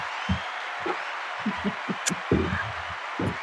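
Sparse, muffled clapping from a few people, irregular and low-pitched, over a steady background hiss, with no voices.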